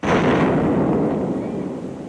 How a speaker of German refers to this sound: Denn in der Nähe von St. George hat die US-Regierung Atomwaffen getestet, hat sie überirdisch explodieren lassen.